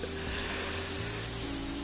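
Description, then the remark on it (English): Steady rain falls outside at a hill station in Uttarakhand around 1 a.m., a continuous, even hiss of drops with no pauses, joined by a faint low hum underneath and no voices. “And currently, I'm sitting in a hill station, and I do not know why I'm traveling to hilly areas in the middle of rain,”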